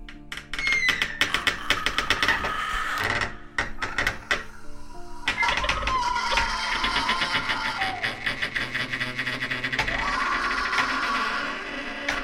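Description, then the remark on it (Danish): A torture rack being cranked in a torture chamber: a loud wooden ratchet clicks rapidly while long creaking, groaning strains rise and fall over about twelve seconds, with no voices. “og i torturkammeret hører du også fra tid til anden denne lyd.”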